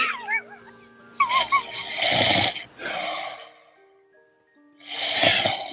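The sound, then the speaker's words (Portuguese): A man snores in three rough, raspy breaths spaced a second or two apart, clear, with a few faint squeaky tones at the start and no talking. “Uma pausa para o … roncando.”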